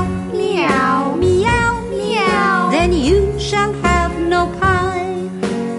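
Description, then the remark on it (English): A voice imitates three little kittens meowing: a run of drawn-out, rising and falling meows, loud, sung over a steady low musical backing. “What lost your mittens, you naughty kittens? Then you shall have no pie. Meow”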